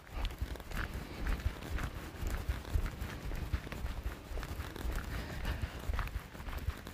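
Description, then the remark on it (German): Quick, light footsteps patter steadily over a hard surface as someone walks 20 steps on the balls of the feet in a walking exercise, with a brisk even rhythm and some rustling; no one speaks. “Dann kommen Ballengang 20 Schritte.”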